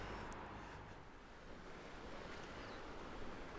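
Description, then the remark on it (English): Ocean surf washes steadily against the coast at Maiden's Cove, where mountains jut out into the sea, a continuous broad roar with gentle swells and a touch of wind rumble, heard alone without any voices. “So, as I'm walking down the coast here, you can see several points where the mountains are jutting out into the sea, and they are all just like got these clouds just sat on top of them.”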